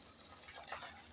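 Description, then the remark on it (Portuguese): Boiling water is poured steadily into a cooking pot of chopped vegetables including carrot for a curry, a soft continuous splashing hiss with a brief sharper splash partway through, fairly quiet, with no one speaking. “Agora entra a água. Cadê um água quente, gostoso? água fervendo?”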